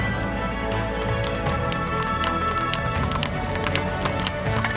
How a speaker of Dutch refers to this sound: Twee trotse paarden voor een gouden koets.